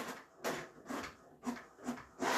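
A printer starts up on its own and whirs into action, its mechanism sweeping back and forth in a steady rhythm of rising bursts roughly every half second, with no voices.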